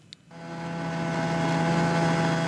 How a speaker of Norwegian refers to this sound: på vei med snøscooteren, fullasta med påskeproviant